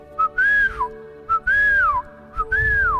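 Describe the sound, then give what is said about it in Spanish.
A person whistles loudly three times to call a pet parrot named Pepito, each call a quick short note followed by a longer tone that rises then slides downward, clear with no talking. “Y silbó con fuerza para llamar su atención.”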